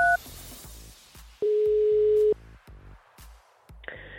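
One steady, loud telephone ringing tone of an outgoing daily call to a co-host travelling in the USA, to leave a message on her voicemail, holding for about a second, with quieter rhythmic music playing before and after it and a brief beep at the start.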